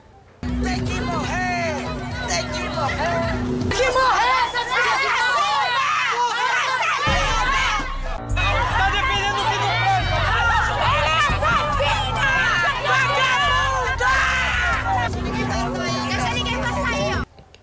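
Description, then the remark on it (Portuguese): A dense, agitated crowd of local people shouts and chatters over itself continuously for about seventeen seconds as police and firefighters arrive, refusing to let them pass, many raised voices overlapping loudly, with a brief thinning of the din midway before it surges again. “corpo de bombeiros também chegou no local junto com a polícia, só que a população não queria deixar eles passarem. Começaram a se revoltar dizendo que eles estavam defendendo uma sequestradora, uma criminosa,”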